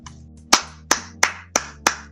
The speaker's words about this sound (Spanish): Me pongo de pie y aplaudo. No, sí, acá también aplaudimos a los amigos que, que tienen nada, esa especie de filial eh, rara en Kiribati.